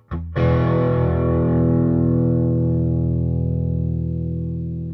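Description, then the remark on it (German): An electric guitar through a 10-watt Studio 10 amp, made for studio and home recording, set to a medium crunch sound: a single strummed chord rings out loud and sustained, its gritty overtones slowly fading over several seconds, with no talking. “So, und äh, ich stelle mal gleich so einen mittleren Crunch-Sound ein am besten, dass du mal merkst, was der da so kann.”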